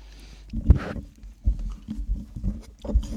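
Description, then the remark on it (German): Irregular knocks and clinks of dishes and cutlery, with soft chewing and smacking sounds in between, moderately loud and without any talking. “Geschirr klappern, essen, schmatzen.”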